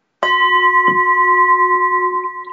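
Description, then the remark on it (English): A gong is struck once, a single loud metallic strike ringing out with steady sustained tones that hum and slowly fade over a couple of seconds, with no voices. “But now I think we should do a gong.”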